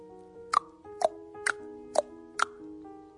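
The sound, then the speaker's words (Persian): Five hollow tongue pops, made by contracting and expanding the tongue, at a steady, unhurried pace, each a short bright plop with a slightly shifting pitch, over a faint sustained tonal hum in the background. “همین صدایی که میتونی با انقباز و انبساط زبونت دراری”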